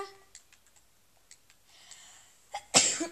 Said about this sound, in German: ich muss niesen.